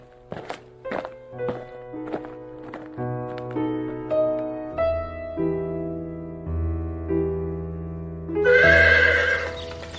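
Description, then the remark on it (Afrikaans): A horse at the stables whinnies loudly near the end, after a few hollow hoof knocks at the start, all over a steady backdrop of sustained musical tones with no voices. “En wat maak jy hier by die stalle?”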